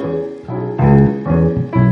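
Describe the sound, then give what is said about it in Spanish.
A bass guitar plays the same low note over and over in a steady rhythm, each pluck ringing into the next, loud with no one talking, demonstrating how one note sounds when given a rhythm. “Cuando agarras la misma nota y tú le motes el ritmo, suena así.”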